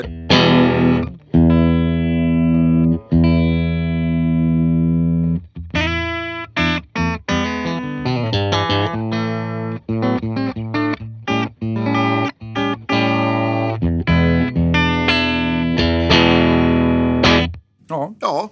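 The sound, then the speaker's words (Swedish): A dry, clean Stratocaster electric guitar played through a Club 40 amp and a Matchless speaker cabinet, strummed chords and picked notes ringing out with sharp attacks and brief pauses, fairly loud, with no voices over it. “Och vi gör så här, vi lyssnar först helt rent ska ja, vi Jag, jag, jag, kör lite stratta här ja.”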